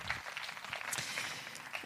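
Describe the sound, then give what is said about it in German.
A steady burst of audience applause for the cameraman, many hands clapping together in a dense, even patter that holds at a constant level for a couple of seconds. “Unser Kammer einmal, einmal einen Applaus für Stefan, unseren Kameramann, Kameramann, Kameramann heute.”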